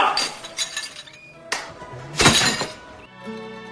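Broken glass pieces clink and rattle in several bright, scattered bursts, one sharp crash standing out midway, fairly loud, with a faint low hum trailing at the end.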